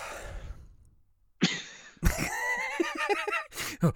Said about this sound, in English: I'm not coming. I'm just breathing heavy.